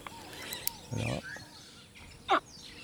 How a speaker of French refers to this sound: Et on a positionné le haut-parleur à l'endroit où sont ces jeunes. Et euh, nous allons lui faire écouter des cris de bébé caïman noir.